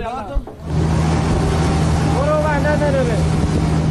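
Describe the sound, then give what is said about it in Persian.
A bulldozer engine roars steadily and loudly, a constant low drone that starts after a brief quiet moment, with a faint voice surfacing briefly underneath midway. The bulldozer is carrying ballot boxes for the 11 Esfand election to flood-stricken areas of Sistan and Baluchestan. “هم قررش بلدوزری است که نه برای امداد رسانی بلکه برای رساندن صندوق رأیگیری انتخابات 11 اسفند به مناطق سیل زده می رود.”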